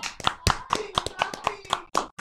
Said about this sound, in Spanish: Un, aplauso. ¡Grande!